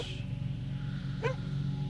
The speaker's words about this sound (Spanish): los ladridos de los perros se oyen aquí nomás junto a nosotros.